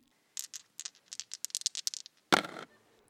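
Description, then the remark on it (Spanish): Dice rattle with a quick run of small, irregular clicks, then land in one louder clatter that fades out. Clear, with no voices. “Vamos a lanzar los dados.”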